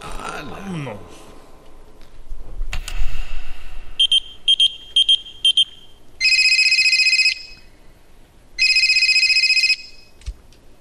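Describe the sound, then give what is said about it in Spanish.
A telephone rings loudly: a quick series of short electronic chirps, then two long trilling rings separated by a brief pause, with a bit of voice noise at the start. “Oye, llaman como tres veces que te marco el vibrero y no contestas.”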